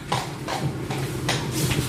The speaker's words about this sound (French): vous brossez le cheval, c'est ça euh, Ouais, d'abord, là, je l'étrie. Ça veut dire que j'essaie de faire sortir la saleté euh, du poil. Et après, je passerai la brosse.